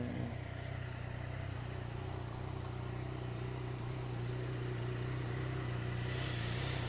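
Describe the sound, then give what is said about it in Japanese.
A motorcycle engine idles steadily, a low, even rumble with a constant throb and no revving, running the whole time with no one speaking. “でまあ近くを通りがかる人がですねなんであいつはあのバイクのアイドリングをしてるんだということのみならずなんであいつはバイクのアイドリングするときにカメラ出して撮影してたり”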